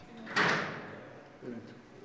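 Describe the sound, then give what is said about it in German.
A door in Iran, once only for CIA staff, moves open or shut with a sharp, fairly loud clunk and a short fading rumble, then a softer knock follows about a second later, against a faint background hum. “Hier sagt er, durch diese Türe durften nur Mitarbeiter der CIA gehen, mitten ins Zentrum des Spionagenests, wie es im Iran heißt.”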